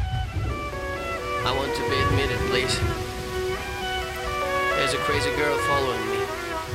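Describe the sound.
Steady, hissing rain at the start of a music video, in which a man comes running through the rain and hammers on doors, while tonal, voice-like music rises and falls over it, the downpour staying even throughout.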